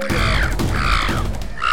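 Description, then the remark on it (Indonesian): A parrot squawks in surprise as a thick black cloth is thrown over it: loud, harsh squawks, three raspy bursts close together, the last one cut short, with no voices around them. “Bebo berteriak kaget.”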